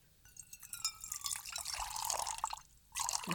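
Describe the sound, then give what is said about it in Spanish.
Water drips and trickles steadily, with bright splashy patter and a few sharper drops, fairly quiet, ending in a brief louder gush of running water. No voices. “Porque si no, nada más van a escuchar agüita, bonito.”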